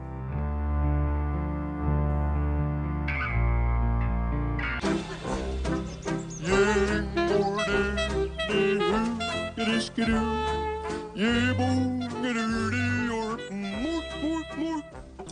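Instrumental post-rock track that opens on steady, droning synth tones, then swells into a full, dense band sound after a few seconds, with a heavily processed, effect-laden melodic line weaving over it.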